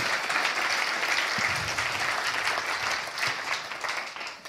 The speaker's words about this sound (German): Lasst uns ihm einen Applaus geben, wenn das für euch gute Botschaft ist.